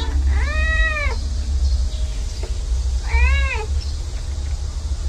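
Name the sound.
cats meowing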